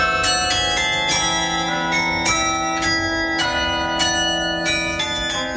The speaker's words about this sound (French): Comme dans d'autres grandes villes européennes, le carillon de l'hôtel de ville joue ce morceau tous les jours, un peu avant 13 h Depuis vendredi, une manière symbolique de témoigner du soutien de la ville de Lyon au peuple ukrainien